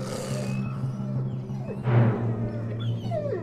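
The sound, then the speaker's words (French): Several wolves yelp and whimper in a jumbled burst as a stacked column of wolves collapses in a heap, a louder crash of sound near the middle, with high whining yips trailing off over a steady low rumble. “Pris de panique, il sursauta et patatras toute la colonne de loups s'écroula.”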